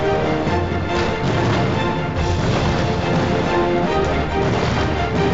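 A fireworks display launched in Valencia at the 36th Goya Awards gala, set off by the Valencian pyrotechnics firm Ricard Caballer, going off in a dense, continuous wash of crackling and popping, with occasional sharper bursts rising out of the steady, fairly loud roar. No voices.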